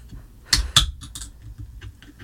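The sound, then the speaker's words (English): A can of cold, non-alcoholic lime seltzer cracks open: two sharp metallic clicks in quick succession, then a brief soft hiss and faint fizzing. “Cracking open a cold one over there.”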